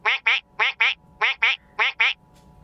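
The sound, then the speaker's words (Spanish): A duck quacks in four quick pairs, each call a short, nasal, raspy honk with brief pauses between the pairs, loud with no voices present. “Solo sé que desde entonces el pato comenzó a aparecerse a cada momento.”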